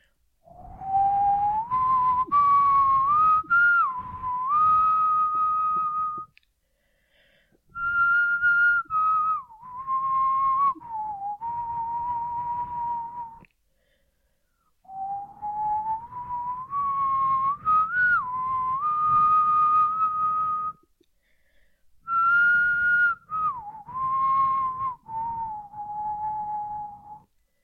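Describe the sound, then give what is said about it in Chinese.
Someone whistles a slow, wavering song melody in four long phrases separated by short pauses, the pitch gliding and bending between notes. The whistle is loud and clear, with no talking. “OK，就到这里，因为我只有吹一次，就是你们刚刚听到的那一次，我就不想再多吹几次”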